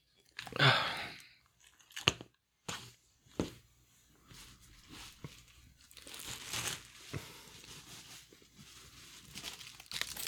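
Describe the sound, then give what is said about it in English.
Handling noises as a small headset is taken out: a sharp crinkly burst, a few clicks and knocks, then steady rustling and fumbling with no one speaking. “is taking out a little headset that makes him look like he's on a uh, he's a caller”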